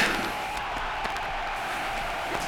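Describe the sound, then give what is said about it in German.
A crowd cheering in a steady, dense wash of noise that holds at an even loudness throughout, with scattered shouts and whoops poking out of the roar. “Das Volk jubelt.”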